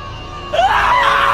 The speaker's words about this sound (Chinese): 就在这个时候，古塔内突然发出了一声尖叫，那声音响亮、短促，而又没有任何词句，在猛然拔高到一个程度后，却又戛然而止，像是被什么东西扼住了喉咙，发不出声音来。